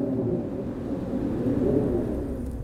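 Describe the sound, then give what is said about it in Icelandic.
A deep, continuous rumble of thunder rolls on steadily from a storm outside, low and heavy with no sharp crack, holding a fairly even loudness throughout. No voices are present. “Heyrir í storminum úti.”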